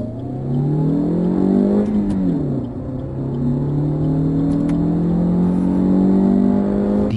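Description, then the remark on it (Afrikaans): A small 1.6-litre petrol car engine producing 86 kW revs up and accelerates through the gears, its harmonic drone rising in pitch, dipping briefly at a gear change, then climbing steadily again, loud with no talking. “1.6 petrol skop 86 kW uit. Kar het die nuwe 100 in 'n billike 10.8 sekondes skaf gedraf.”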